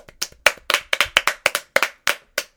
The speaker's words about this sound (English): Well, uh, you know, crap or no crap, we deserve. He deserves a clap. So, come on, clap yourself.